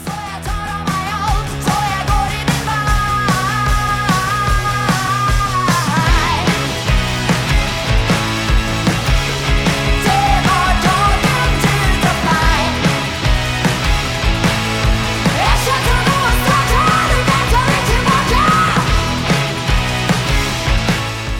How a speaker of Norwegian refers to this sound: Du hører nå et klipp av en av låtene….